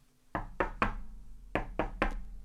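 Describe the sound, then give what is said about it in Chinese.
Heavy pounding on a city gate on a stormy night of lightning, thunder and pouring rain, in two quick bursts of three knocks each, every blow dull and resonant with a short ring-off, over a low steady rumble and no voices. “这个时候啊，有人拍打着城门，老国王便走过去开门。”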